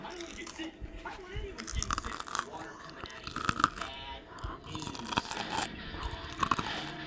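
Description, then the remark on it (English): Crunching and chewing of homemade, really crunchy fries, with repeated sharp, bright bites and crackles over several seconds, loud, with faint breathy sounds between bites. “I made really, really crunchy fries.”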